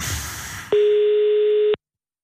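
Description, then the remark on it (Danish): A single loud, steady telephone ringing tone of a call placed to a man's phone to hear his answering machine message sounds for about a second after a brief burst of background noise, then cuts off into silence. “men vi har jo aftalt, at vi skal ringe og aflytte hans telefonsvar, hvor han har indtalt ja, en besked”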